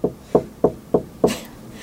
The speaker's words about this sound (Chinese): 他在做手工艺，就是手工艺都有那个小小小榔头，有没有？ 嗯 扣扣扣扣扣扣扣扣。 这么 对 大声哦！